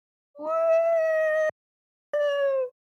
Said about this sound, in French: Est-ce que c'est un chat qui souffre T'as déjà entendu un chat faire Yahoo, toi non, non, effectivement, ça, ressemble.